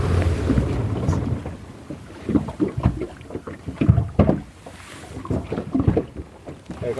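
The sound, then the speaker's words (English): Several breathy, rushing bursts, a whale blowing as it surfaces, rise over a steady rumble of boat engine and water. The whooshes are fairly loud. “you hear the blow when they come to the surface”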